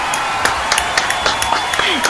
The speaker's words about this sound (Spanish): Gracias por acompañar, gracias por escuchar, gracias por eh, aguantar nuestras tonteras y especialmente un aplauso gigantesco a nuestra invitada del de hoy